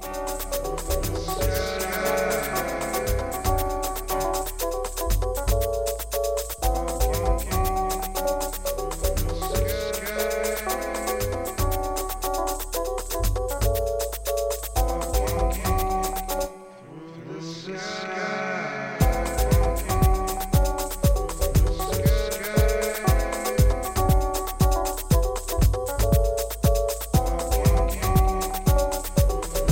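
A house music track plays steadily with a driving beat and layered melodic tones; midway the bass and drums drop out for a brief breakdown before returning fuller and louder.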